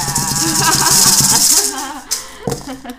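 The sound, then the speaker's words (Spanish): Maracas brought back from Puerto Rico shaken in a steady, loud, hissy rattle for about a second and a half, followed by a few separate sharp shakes, with faint murmuring underneath. “Estas son unas maracas que trajimos de Puerto Rico”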